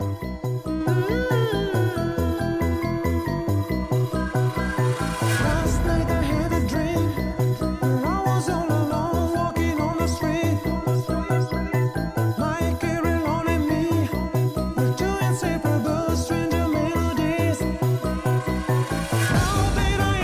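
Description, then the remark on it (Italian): A tinkling music box melody plays steadily for about twenty seconds, bright chiming notes over a fuller backing, fairly loud, with no talking. “E questo è il suono del Carry carillon.”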